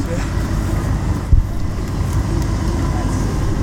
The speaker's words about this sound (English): So, there's a fire truck right behind us. Fire truck.